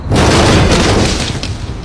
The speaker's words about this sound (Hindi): गाड़ी थोड़ी और आगे बढ़ी कि एक आवाज गाड़ी के बोनेट पे सुनाई दी